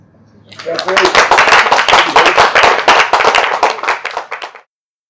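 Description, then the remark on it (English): A crowd at a Circle of Hope Sunday meeting breaks into applause, a dense, steady patter of many hands clapping at once that holds for about four seconds before stopping abruptly. “Could we give a round of applause?”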